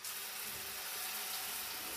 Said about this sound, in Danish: Og så går jeg ind og tænder for vandet.